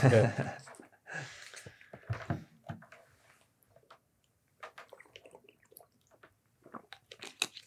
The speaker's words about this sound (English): Let's have some water. In a second.